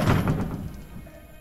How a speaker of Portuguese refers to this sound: eu faço um sinal para ele entrar na carruagem. Ele entra. Eu fecho a porta.